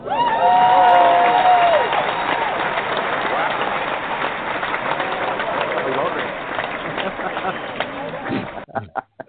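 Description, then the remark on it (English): Loud, steady applause welcoming producer Sean Kanan as a guest fills about eight seconds, a dense wash of clapping with a high whistle rising briefly near the start, then stopping abruptly. “We're going to give you, real so applause.”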